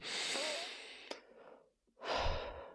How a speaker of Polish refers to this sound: Wziąć głębszy oddech, a to się kojarzy z jakimś takim od razu, wiesz, w ciele luzem, nie?